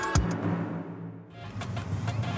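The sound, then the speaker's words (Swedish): Inside a car, a low steady engine and road rumble fills the cabin, with a dull thump near the start and a few faint clicks and rattles later. No one speaks. “Det är väldigt rent i din bil.”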